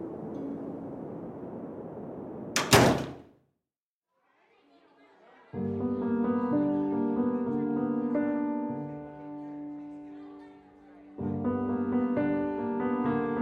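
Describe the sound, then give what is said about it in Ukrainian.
A woman heavily opens and shuts a heavy door at the entrance of a palace, with one loud, sharp thud as it shuts, after a stretch of muffled crowd noise. A brief silence follows, then a busy murmur of many voices swells up. “жінка тяжко відкрила і закрила за собою двері.”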